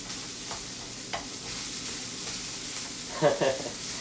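Steady crackling sizzle of egg frying in a hot pan while making fried rice, with a few sharper spatters and a brief burst of scraping or stirring near the end, with no talking.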